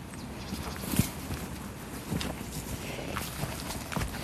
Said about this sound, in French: C'est assez agréable cette déambulation dans les feuilles mortes, parce qu'on est dans un paysage qui est rafraîchi par la pluie, alors que le soleil est revenu.